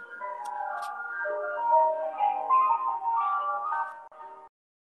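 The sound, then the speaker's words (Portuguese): An ice cream cart's jingle plays a bright, steady electronic melody of quick repeating notes for about four and a half seconds as the cart passes by, then stops abruptly, with no talking over it. “Calma aí, que tá, vai passar o carrinho de sorvete, ó.”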